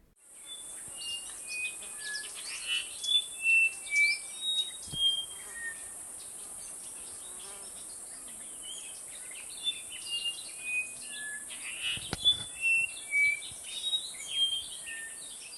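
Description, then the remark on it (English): A brown-throated wattle-eye, also called the common wattle-eye, a small insectivorous passerine about 14 centimeters long, calls in two bursts of short, clear whistled notes, each phrase repeating quickly. A steady, high insect drone hums beneath the whole recording. “The bird for today is the brown throated wattle-eye.”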